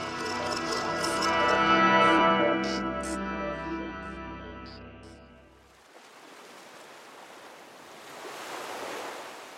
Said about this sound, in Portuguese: O dia estava chuvoso, o céu nublado, e ela passou um bom tempo olhando em silêncio as ondas que quebravam repetidas vezes na areia.